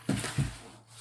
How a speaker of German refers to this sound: das ist mein Hund, der im Hintergrund mal die Geräusche macht